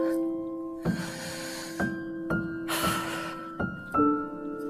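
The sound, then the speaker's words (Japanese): A series of sharp, hissy nose sniffs, about six in a row with one longer drawn-out intake, each ringing with a steady resonant hum underneath. “鼻すするのを響かせたらちょっと笑えたかな。”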